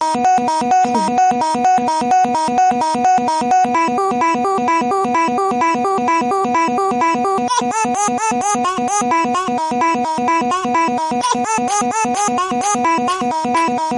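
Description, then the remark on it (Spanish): A loud, frenetic remix of a baby's babbling, cries and laughs, chopped into rapid stuttering repeats that pulse steadily and densely for the whole stretch, with no talking. “incluye tanto balbuceo, llantos, risas, y otros ruidos pues eh, varios y aleatorios que hace el niño”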